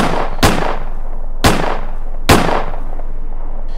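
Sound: gunshots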